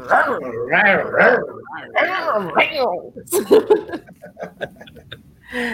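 A dog growls in a series of drawn-out, wavering vocal bursts, fairly loud, followed by a few short, sharp noises near the end.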